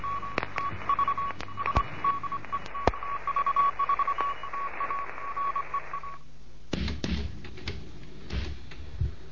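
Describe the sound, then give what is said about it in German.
A single steady Morse code tone beeps out rapid dots and dashes over hissy radio static for about six seconds, then cuts off, leaving crackles and clicks. It is a Morse lesson for beginners transmitted from Bremen. “in Bremen mit einem Morseunterricht für Anfänger.”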